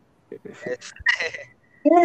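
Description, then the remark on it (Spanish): The voice sound effect of Navi, the fairy in the video game: short, bright, chirpy, with quick high-pitched syllables calling 'listen' and a squeaky tonal cry, repeated in a couple of brief bursts. “Ahora, los soniditos que hacía, porque no, no solo tenemos que hablar del, excelente soundtrack, los sonidos que, que metieron para Navi, eh, todavía les aseguro que muchos de nosotros le hemos puesto de tono de, celular, güey.”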